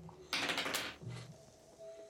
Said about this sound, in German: Ich muss doch noch mal kurz würfeln.